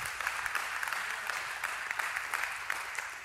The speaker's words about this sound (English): Would you give Jesus Christ an ovation of praise?